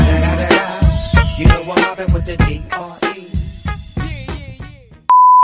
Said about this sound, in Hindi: कितना बीप डालो भाई कितना बीप एडिटिंग इतनी ज्यादा हार्ड करने वाला